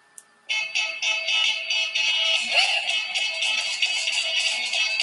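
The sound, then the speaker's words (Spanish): A bright, sustained keyboard part opens a rock song, kicking in suddenly after a brief pause and pulsing steadily with rhythmic chords, loud and up front with no voices. “Ahí empieza el teclado”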